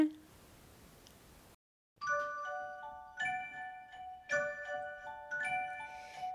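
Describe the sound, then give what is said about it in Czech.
A short tinkling closing jingle of ringing bells ending a fairy tale: several bright struck notes in a loose rhythm, each sustaining and overlapping, clear after a brief hiss and a moment of silence. “Zavírám oříšek pohádkový, slyšte už zvonky zvoní.”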